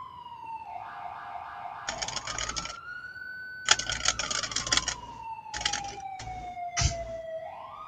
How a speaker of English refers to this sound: Realistic typing sounds.